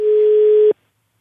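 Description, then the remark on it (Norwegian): A single steady telephone ringing tone of a call placed from NRK Radio, a flat mid-pitched beep lasting under a second before cutting off abruptly into silence. No voices are present. “som ringer fra NRK Radio.”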